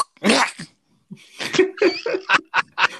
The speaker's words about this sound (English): Bless you. I apologise to our listeners on headphones.